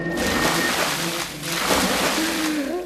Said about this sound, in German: Mehrere Eimer Wasser ergossen sich über ihn.